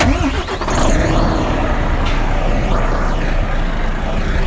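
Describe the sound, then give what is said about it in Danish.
A heavy diesel engine of a Volvo FH truck from the newest Volvo generation cranks and catches, then settles into a loud, steady low rumble that stays constant to the end, with no voices. “Ja, det vi hører her, det er en FH-motor, der starter af den helt nye Volvo-generation”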